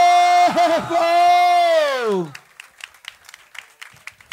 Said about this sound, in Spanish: Muy bien. un fuerte aplauso para los picante Muy bien.